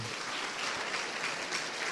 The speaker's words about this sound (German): Lass uns den Leuten und lass uns Gott mal einen großen Applaus geben.